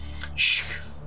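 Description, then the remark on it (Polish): A brief, airy whoosh with a hissing, whistling edge sweeps past in a single quick burst, over a faint low background hum. “świst.”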